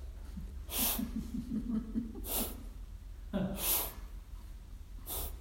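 Four airy rushes of breath, evenly spaced about a second and a half apart, alternating inhale and exhale over a low background hum with a faint murmur of voice between them.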